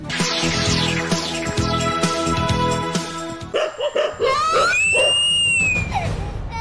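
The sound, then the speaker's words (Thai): After a few seconds of music, a dog barks several times in quick, sharp bursts, followed by a child's loud, high-pitched rising scream that carries on to the end, as the family's own dog bites the child. “พี่พี่ แย่แล้วแย่แล้ว ลูกเราถูกเจ้าตูบกัด มาช่วยหน่อย”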